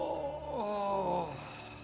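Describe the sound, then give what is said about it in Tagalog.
A drawn-out, eerie moaning groan from a grandfather locked in a vacant room, wavering in pitch as it slides down and then rises again, steady with no talking over it. “Tumigil din ito at nagsimula na namang umungol.”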